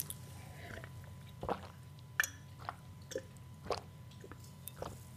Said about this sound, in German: Ich muss jetzt mal ganz kurz einen Schluck Wasser trinken, entschuldigt mich.